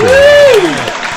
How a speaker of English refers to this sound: Welcome to the show. Great applause. All right, great applause.